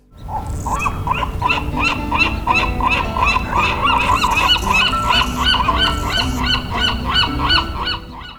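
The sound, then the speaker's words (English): A dense chorus of gulls calling above Alcatraz Island, with loud, harsh cries overlapping in quick succession throughout, as if from a crowded flock, with no talking. “The gulls and the hummingbirds pirouette and sing above.”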